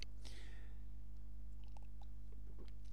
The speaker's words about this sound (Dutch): Even een slokje water.